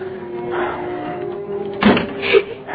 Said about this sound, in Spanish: debe haber dejado abierta la ventana alta del baño y está sonando con el viento